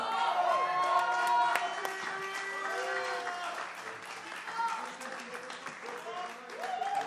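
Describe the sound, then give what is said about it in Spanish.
A crowd claps steadily and loudly throughout for the musicians of a live Latin band as they are introduced, with whoops and cheering voices rising over the dense applause. The clapping stays strong from start to finish with no pause. “Un fuerte aplauso.”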